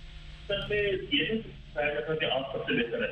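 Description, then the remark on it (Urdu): A phone-in caller's voice comes through a thin, band-limited line, sounding muffled and garbled in bursts with short gaps, like a distorted phone connection where the words can't be made out clearly. “آواز اس طرح ان کی نا ڈسٹورشن تھی تھی کلیئر نہیں آ رہی”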